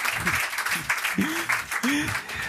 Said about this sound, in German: Heute mit Applaus. Ist ja live, muss sein, muss sein.